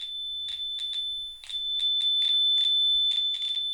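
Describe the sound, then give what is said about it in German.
A Colorstar color detector set on a written sheet of paper, a letter, gives a steady high-pitched electronic tone where the page is blank, broken by repeated brief crackly bursts of interference at an uneven rhythm where there is text. Fairly loud, with no talking. “Wenn ich den Colorstar dagegen auf ein beschriebenes Blatt Papier, in diesem Fall auf einen Brief aufsetze, dann pfeift das auch hoch, weil hier nichts steht. Aber hier ja, kommt so eine gewisse Störung in den Ton rein.”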